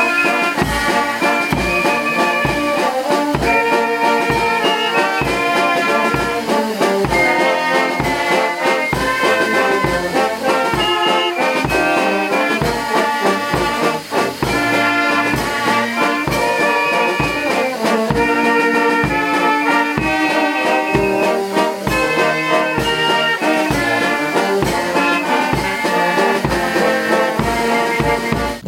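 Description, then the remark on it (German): A brass band from Kronstadt plays a lively serenade with a steady, marching beat at a train station before setting off on a narrow-gauge railway trip through a valley, loud, filling the whole stretch without any talking over it. “Vor der Abreise spielten die Musikanten ein Ständchen am Bahnhof.”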